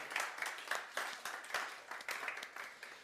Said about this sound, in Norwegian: Det er lov å klappe for dem for det.